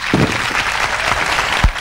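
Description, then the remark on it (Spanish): The audience of a solidarity broadcast, present for seven hours, claps steadily in a dense wash of applause, with a few louder low thumps standing out. The clapping is continuous and fairly loud throughout, with no clear speech over it. “Nosotros aplaudir a este público que nos está acompañando desde.”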